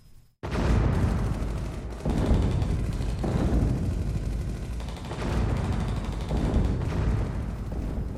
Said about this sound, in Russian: Однажды в одной южной стране отдаленно послышались звуки пушек.